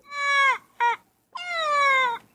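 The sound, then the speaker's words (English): An Indri lemur call: three loud, wailing tonal cries in quick succession, a long one, a brief yelp, then a longer drawn-out wail, with no talking. “Here's the Indri lemur.”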